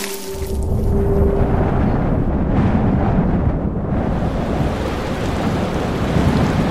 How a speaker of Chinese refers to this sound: 啊！怎么刮大风下大雨了？